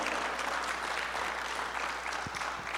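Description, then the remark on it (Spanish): A large group claps steadily and densely, a sustained wash of applause at fairly strong volume from start to finish, with no voices standing out. “Ah, yo hubiese gritado, hubiese aplaudido, yo hubiese hecho ruido por lo que Dios ha hecho en mi vida, hermano.”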